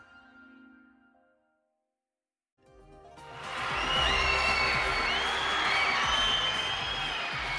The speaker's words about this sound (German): Jubeln, tanzen, sich verausgaben bei einem Konzert, gemeinsam schwelgen im Alles ist möglich Gefühl, zusammen mit Tausenden von Leuten.